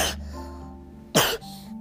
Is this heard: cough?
yes